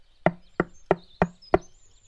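knocking on a door

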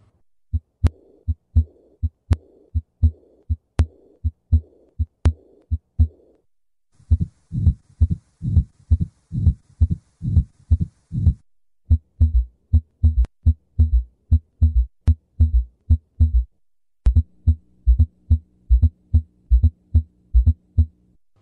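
diastolic heart murmur

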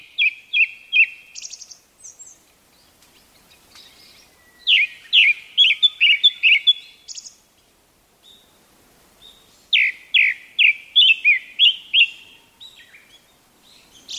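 japanese thrush song

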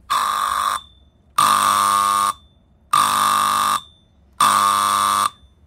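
alarm going off

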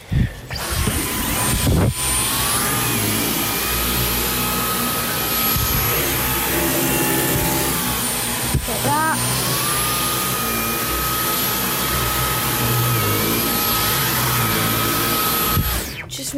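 vacuum cleaner running

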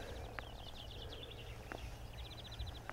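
birdsong outdoors

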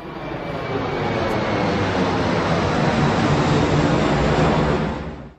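airplane flying

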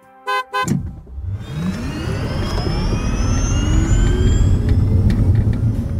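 car horn honking

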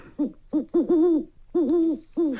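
owl hooting

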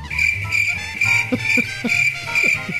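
crickets chirping sound effect

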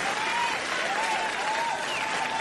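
audience applause

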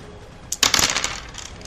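two dice being rolled

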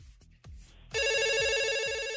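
telephone ringing

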